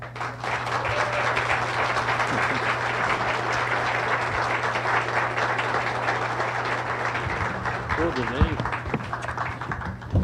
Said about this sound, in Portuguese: Eu achei péssimo. Vamos fazer de novo. Quero aplauso. Sabe a plateia do Silvio Santos?